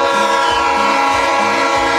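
A locomotive train horn blares continuously for the full two seconds, a loud, steady, multi-toned chord over a low rumbling churn of the moving train.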